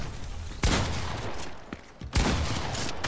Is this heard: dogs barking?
no